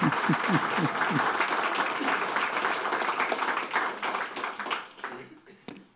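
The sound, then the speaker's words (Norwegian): A crowd applauds steadily with dense, overlapping clapping to welcome a university librarian giving a lunchtime lecture on Ludvig Holberg, then tapers off and fades out near the end, with a few scattered claps and a brief voice underneath. “Gi han en stor applaus.”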